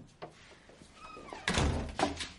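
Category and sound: household object, door being closed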